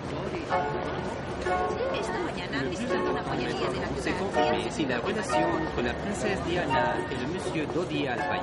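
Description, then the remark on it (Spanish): A steady crowd of many voices chattering at once: international press reporters at the door of the Hotel Ritz in Paris at night, 30 August 1997, foreign correspondents talking to their cameras while others take photographs. Overlapping talk forms a continuous dense babble outdoors, with no single voice standing out clearly. “Los corresponsales extranjeros hablan a sus cámaras mientras otros periodistas hacen fotografías.”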